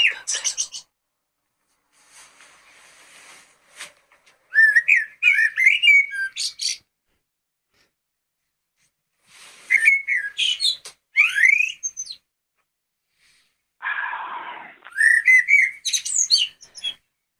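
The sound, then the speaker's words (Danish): Bird calls played from a phone speaker: bright chirps, trills and whistles in four separate bursts with silent gaps, fairly loud, thin in tone with no low end. “Gud i himlen, er der fløjet en fugl ind i mit soveværelse.”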